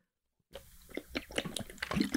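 After a brief silence, someone drinks in quick repeated gulps, close to the mic: a rapid series of wet swallowing and sloshing sounds that grow a little louder toward the end.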